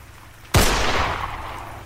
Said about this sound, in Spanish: apunta y dispara